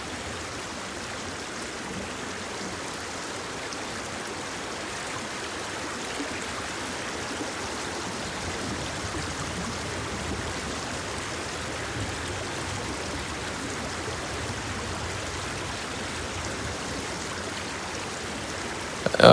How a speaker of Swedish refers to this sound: Ja, det är riktigt skönt. Det är så harmoniskt. Ja, det är en otrolig fors faktiskt.